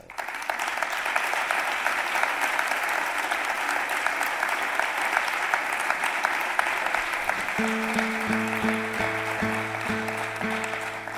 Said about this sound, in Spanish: uno de los más grandes de la guitarra flamenca, que se llama, y está aquí esta noche con nosotros, Gerardo Núñez. Un aplauso, por favor.